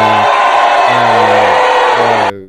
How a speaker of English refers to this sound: Oh, it's oh. oh okay, I'm, start, I'm starting to get booed